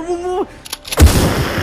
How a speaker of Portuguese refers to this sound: Dá um tiro no rosto de Cyber.